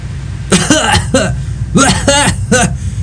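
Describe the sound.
A voice imitates a woman's coughing: several harsh, voiced cough bursts in two quick clusters, fairly loud over a low background hum.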